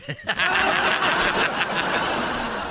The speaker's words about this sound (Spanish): Y ya me estoy usando la licuadora para hacerme un licuado, güey. Y ya me di cuenta que vas a ver mi licuado de plátano, vas a ver a chile guajillo porque no la lavé bien cuando hice.